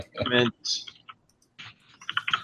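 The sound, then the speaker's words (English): Quick bursts of computer keyboard typing, a flurry of crisp key clicks arriving in uneven clusters, with a brief voiced sound at the very start, as someone looks up their completed Xbox games on the True Achievements website. “And on Xbox, uh, sorry, I'm typing in real time.”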